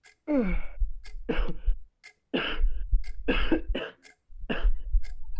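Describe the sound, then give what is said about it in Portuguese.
A person acts out a fit of harsh, choking coughs as if coughing up blood after falling to the floor, several ragged bursts in quick clusters with brief gasping pauses, fairly loud with no other talk. “Você é, cai no chão, começa a tossir sangue, começa a tossir sangue.”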